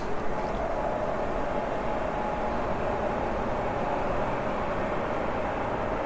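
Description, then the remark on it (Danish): A train rumbles steadily past on a railway line a few hundred metres behind the gardens, a loud, continuous roar of wheels and engine with a faint tonal hum that holds for the whole stretch without letting up. “imens vi følger skinnerne et lille stykke tilbage, derfra hvor toget kom.”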